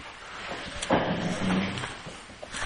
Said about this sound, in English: What's wrong with that chair? Move that chair away at least.